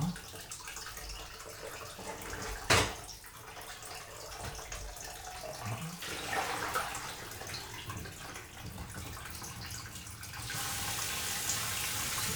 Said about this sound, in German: So, dann hört ihr mal ein bisschen Wasser laufen auch.